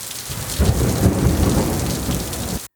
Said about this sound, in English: Angry lightning, Purple black clouds rolled across the sky. Thunder that shook the earth. Then came rivers of rain.